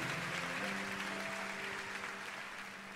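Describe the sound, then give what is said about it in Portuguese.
An audience claps steadily in a dense, sustained round of applause given to the Lord, with a low humming tone underneath and faint voices mixed in, holding level for the whole stretch. “Dê um forte aplauso ao Senhor, queridos.”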